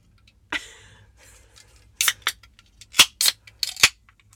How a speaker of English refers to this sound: The second cracking, the ceremonial cracking of the second beer. You got there. Yay. Cheer.